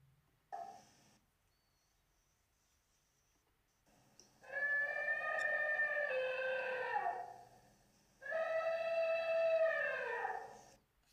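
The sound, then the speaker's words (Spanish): An elephant trumpets twice, each call a loud, brassy blast lasting a few seconds and sliding down in pitch at the end, with a short pause between them. “Era el sonido de un elefante.”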